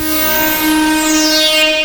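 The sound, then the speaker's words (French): A loud, sustained synthesizer tone with rich, buzzy harmonics rings out alone, washed in reverb, while bright high overtones sweep up and down across its two seconds. “Par exemple, la reverb,”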